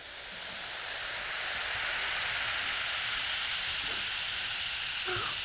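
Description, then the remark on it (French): A steady fizzing hiss from a baking soda and vinegar chemical reaction that produces gas and inflates a balloon, bright and airy, holding constant throughout without pauses, with only a faint brief sound near the end. “Mais c'est magique Et écoutez le bruit que fait la réaction chimique.”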